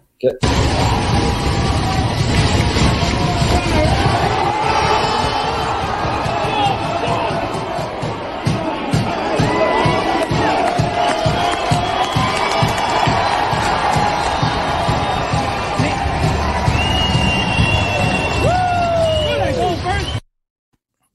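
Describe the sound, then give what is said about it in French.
A loud crowd at Stade Canac roars and cheers continuously at a baseball game, with a dense rhythmic pounding of banging on benches running through the din, and shouting voices mixed into the noise; filmed on a phone. “Mais Sylvain, je ne sais pas si tu as entendu, puis ça, c'est particulier l'ambiance au Stade Canac. Le bruit des bancs qui frappent.”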